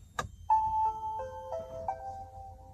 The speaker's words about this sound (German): Wir steigen also ein, haben den Schlüssel in der Tasche oder in der Mittelkonsole, ist ja auch egal, drücken jetzt auf Start und dann hört man dieses Geräusch.